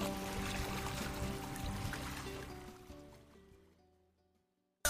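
Water of streams and waterfalls pours and rushes steadily in a dense, hissing wash, with faint sustained musical tones beneath, then gradually fades away to near silence before a brief click at the end.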